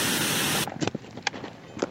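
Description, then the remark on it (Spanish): Shovels and picks strike the ground in a handful of sharp, irregular thuds and scrapes during a field search for missing people by women combing hills and plains, following a brief burst of steady hissing noise; no one speaks. “Mujeres que recorren montes y llanos, palas y picos que chocan contra el suelo, varillas en forma de T que se hunden en la tierra para buscar y para captar olores de cuerpos en descomposición.”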